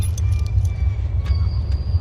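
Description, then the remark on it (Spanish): Keys jangle in a few light, scattered metallic clinks as the back door is being locked, over a steady low rumble in the background. “Bueno, estoy cerrando la puerta de atrás donde venía el maletín la otra puerta tenemos llave ahí está”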